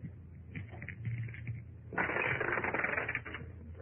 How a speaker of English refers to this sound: One of the dice burns up a six while the other is clean.